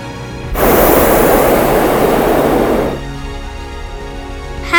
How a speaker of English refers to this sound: And the best part, the peaceful silence, broken only by the occasional burst from our burner.